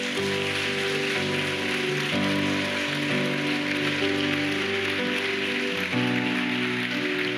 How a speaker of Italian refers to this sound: Diamo un applauso al nostro Re.